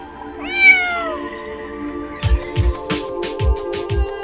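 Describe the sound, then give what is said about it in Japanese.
A black cat named Pluto gives one clear, drawn-out meow, rising then falling. After a short pause, a series of soft, evenly spaced thumps like footsteps follows over a faint steady hum. “その夫婦が飼っていた黒猫の名はプルート夫婦は動物好きで大層気があったおいおいプルートどこまでついてくるんだ プルートはあなたがお気に入りなのね”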